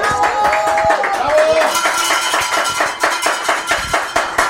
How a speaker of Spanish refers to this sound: Así es que yo los recibo a los dos con un muy fuerte aplauso.